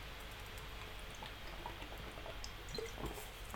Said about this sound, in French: C'est pour moi l'occasion de boire en cachette. Voilà. ça, vous ne me voyez pas à l'image. Là, je suis en train de meubler jusqu'au moment où je vais pouvoir siroter. Alors, c'est pas de l'alcool, c'est même pas de la bière, c'est juste de l'eau.